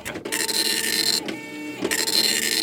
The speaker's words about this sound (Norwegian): Så da er vi i gang å printe i lette kvalitet her. Mm. Og vi hører jo at den lager en annen lyd